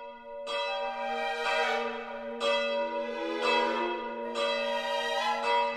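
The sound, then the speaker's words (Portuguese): The bells of the Torre dos Clérigos strike seven times at midnight with no one touching them, loudly and steadily, roughly one toll per second, each ringing out with a long, humming resonance that overlaps the next. No one speaks. “Recentemente, no dia 2 de cada mês, os sinos da Torre dos Clérigos começavam a tocar à meia-noite, sem ninguém lhes mexer. E ainda por cima, a um ritmo inesperado. Primeiro, sete badaladas.”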